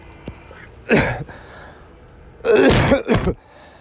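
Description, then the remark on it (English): A person coughs and clears their throat in front of a camera: one rough burst, a pause, then two more harsh throat-clearing bursts in quick succession. “I thought I cough. cough in front of the camera a little bit.”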